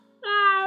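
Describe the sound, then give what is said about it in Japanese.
A person imitates a cat's meow as said in English with a single short, voiced "meow" sound, steady and close, rising out of near silence and sustained for about half a second. “わからない皆さんには言っとくんですけど、あの、英語の、まあ、猫の鳴き声は、MEOW ですね。”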